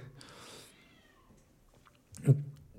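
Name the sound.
cats meowing loudly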